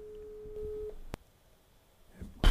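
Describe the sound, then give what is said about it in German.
A telephone ringback tone: one steady electronic beep lasting about a second, followed by a sharp click, a stretch of near silence and a sudden loud rustle at the end, with no one answering. “Warte mal, ich, ich telefoniere mal eben.”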